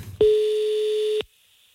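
A single steady telephone ringback tone sounds for about one second, clean and fairly loud, with silence on either side and no voices present.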